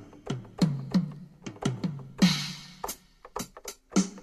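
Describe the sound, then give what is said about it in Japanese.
Electronic drum sounds from a toy keyboard play a quick rhythmic pattern: thumping kick hits with short low tails, a couple of noisy snare-like crashes, and light ticking hits between, with no talking. “というこのドラムの音が出るようになっておりますね。”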